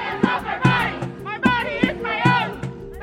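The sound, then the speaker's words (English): A crowd of protesters from both sides chants and shouts outside the Supreme Court on the day of oral arguments in an abortion rights case, in loud, rhythmic bursts, voices rising and overlapping with sharp accented beats roughly every half second. “but on Wednesday you could tell that protesters on both sides were especially charged up.”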